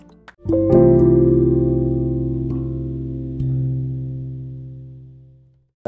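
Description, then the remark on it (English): A loud electronic chime tone, a call notification ding, sounds and holds for several seconds, shifting once partway through before slowly fading out. No one speaks. “Uh, just the little dings that, you know, happen.”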